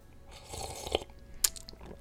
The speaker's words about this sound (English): Let me take a sip of my coffee here.